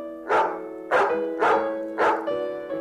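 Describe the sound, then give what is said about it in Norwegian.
A dog barks four times in a steady rhythm, about half a second apart, loud, followed by a softer trailing bark with no one speaking. “I 99 av alle tilfellene har den syke vært eksponert for rabiessmittet hund.”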